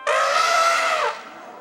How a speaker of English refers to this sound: And when it lifted its long gray trunk and let out a loud trumpet like call,